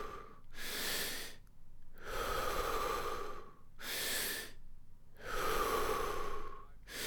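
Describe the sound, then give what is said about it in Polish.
Deep, forceful breaths repeat in a steady rhythm as a breathing exercise, each long airy inhale and exhale followed by a short pause, fairly loud with no talking. “Wdech, wydech.”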